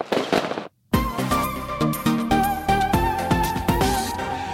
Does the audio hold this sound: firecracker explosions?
yes